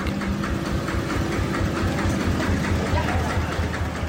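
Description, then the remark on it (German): A tractor rumbles along the gravel main road of a village of 700 inhabitants, Muang Muangnoi, in the morning, its heavy engine chugging in a steady low rhythm over a constant bed of rough, crunching noise, with no voices. “Hähne krähen, Kinder gehen zur Schule, vereinzelt fahren Traktoren über den Weg.”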